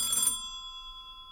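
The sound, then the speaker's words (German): A telephone bell at a police post gives a single bright, metallic ring that lingers as a steady, slowly fading tone. It sounds fairly loud, with no one talking. “Nimm du ab.”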